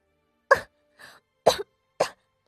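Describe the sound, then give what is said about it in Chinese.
Three strained, harsh coughs with a weaker, breathy cough between the first two, from someone clutching their chest and coughing with difficulty, spaced unevenly as if forced out through pain, with no talking. “惨笑着，捂着胸口艰难的咳嗽起来”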